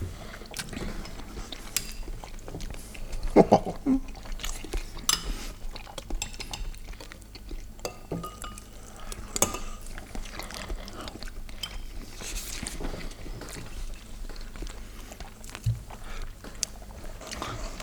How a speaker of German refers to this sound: Schmatzen ist erlaubt, vielleicht sogar erwünscht.